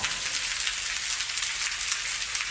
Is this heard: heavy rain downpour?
yes